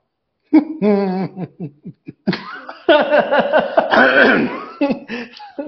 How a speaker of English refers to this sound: Let me clear my throat.